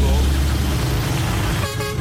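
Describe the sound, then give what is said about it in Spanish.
A car horn toots over a low, steady rumble of idling traffic in a traffic jam of more than an hour at a dead traffic light on the Joaquín Balaguer highway, with a second brief honk near the end. A voice is audible underneath the road noise. “no hay luz en el semáforo de autopista Joaquín Balaguer. y no mandan ni siquiera un amén con este tapón más de una hora.”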